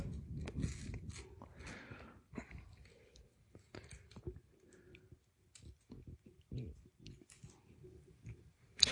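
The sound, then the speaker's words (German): Quiet crinkling and rustling as a hand-rolled cigarette with torn paper is handled, with scattered soft clicks and a few brief papery tearing rasps, alongside low indistinct voice sounds. “Du musst meine Filter, äh, meine gedrehte Zigarette reparieren, weil mir der, das Papier zerrissen ist.”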